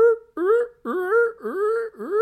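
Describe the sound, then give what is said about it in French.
A voice imitates a drunken seal, mimicking the squeal of train wheels rubbing on the rails, with a series of four or five wobbly, swooping honks, each dipping low then rising, delivered fairly loud in quick succession. “Mais ça me faisait vraiment penser à un bruit de phoque totalement bourré qui faisait.”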